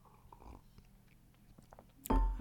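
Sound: sipping tea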